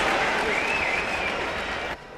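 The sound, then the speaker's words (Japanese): A big crowd cheers and claps at the 6th Jockey Babies horse race, contested by eight young riders, a loud, dense, steady roar for about two seconds before it suddenly drops to a quieter background hum. “それでは第6回ジョッキーベイビーズの実況をお聞きいただきましょう…アナウンサーの実況です手そして大歓声です”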